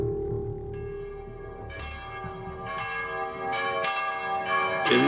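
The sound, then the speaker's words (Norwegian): The bells of the church of Santa Maria della Scala in Trastevere, Rome, ring out with repeated strikes about once a second, each clang leaving a rich, lingering resonance that overlaps the next, over a low rumble of background noise. No one speaks. “Ja, hør, det er klokken i Santa Maria della Scala i Trastevere.”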